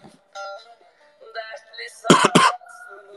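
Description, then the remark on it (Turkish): Two sharp, dry coughs in quick succession, loud, from a person whose throat had dried out, preceded by faint murmuring speech and followed by a soft breathy sound. “Heh, tamam boğazım e, kurumuştu da.”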